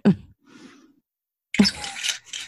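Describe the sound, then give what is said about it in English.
A drink is poured into a glass: a soft knock and brief trickle, a pause, then another clink followed by a second, longer splashing pour, fairly clear with no talking. “Wait, why don't you pour more?”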